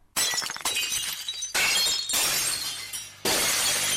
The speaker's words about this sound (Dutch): …, especially when I'm lonely. I need the noises of destruction.